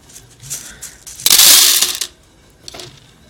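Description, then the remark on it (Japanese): Freshly roasted coffee beans rattle and hiss as they are shaken to cool and shed chaff: soft shakes, then one loud, bright rushing swish lasting under a second, and a lighter shake after. “このザーっていう、このフリフリっていう音と、このザーっていうのは、えその、え粗熱と、え茶太りの、え作業をしている音になります。”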